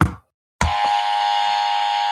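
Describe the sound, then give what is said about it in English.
A short thump, a brief silence, then a loud, harsh battery-operated novelty buzzer blares on and holds steady as a raspy electronic drone until the end, with no voices. “we have a buzzer.”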